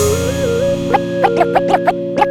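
A music intro with sustained synth tones and a gliding melody, then a series of sharp, effect-laden bursts hitting in an uneven rhythm, loud and processed with heavy distortion.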